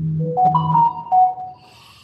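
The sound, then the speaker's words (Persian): A short melodic chime of a few rising and falling electronic tones, like a phone notification, rings out clearly and then fades into a faint hiss. “نه این صدای آره نوتیف های عجیب بذار من اینو نوتیفش خاموش کردم عجیب بود که صدا”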